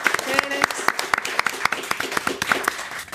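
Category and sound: crowd, studio audience applauding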